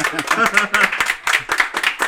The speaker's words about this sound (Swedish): Applåder och visslingar.